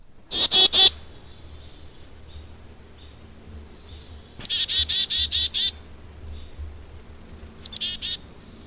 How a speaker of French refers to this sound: Et comme on l'entend, donc c'est le fameux euh, le fameux chickadee, donc un, son très très aigu suivi de plusieurs sons plus ou moins, on va dire, agréables à l'écoute, des sons rauques, aigus, euh, peut-être à la limite du grinçant